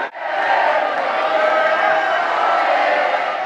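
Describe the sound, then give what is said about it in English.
A large crowd at the Terminal 2 arrivals area of an airport cheers and shouts continuously, welcoming home Team Ireland athletes, a loud, dense wall of excited voices echoing, sustained without pause throughout. “I can't hear myself think with the noise.”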